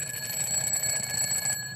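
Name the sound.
alarm clock ringing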